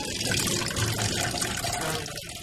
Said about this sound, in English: Right, well, I'm going to wash my hands